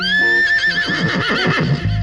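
A horse neighs loudly, one long whinny that wavers and trembles as it falls in pitch, with no voices around it.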